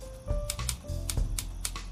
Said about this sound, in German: Er setzt sich an die Schreibmaschine und die Wut und der Ärger über den verlorenen Nachmittag führen ihm die Hände, als er an seinem Manuskript weiterschreibt.